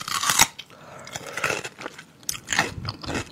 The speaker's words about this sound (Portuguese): O ruído de alguém mastigando.